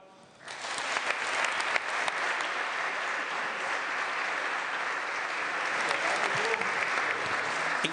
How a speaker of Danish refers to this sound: Så det er en stor, stor fornøjelse at byde rigtig hjertelig velkommen til cirkusdirektøren Benny Badino, som i år med sit cirkus kan fejre 65 års jubilæum med Cirkus Arena på landevejen. Så giv Benny Badino en meget, meget stor hånd.